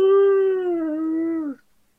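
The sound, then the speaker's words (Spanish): A restless dog kept at a family house gives a single sustained howl on a Friday night at bedtime. The howl is clear and holds a steady pitch that sags slightly before cutting off after about a second and a half, with no talking. “Empieza a ponerse medio inquieto, a ladrar, a aullar de muerto.”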